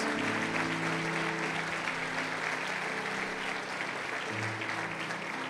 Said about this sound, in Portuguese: Será que você pode aplaudir ao Senhor por causa disso? Porque Ele suportou isso por cada um de nós.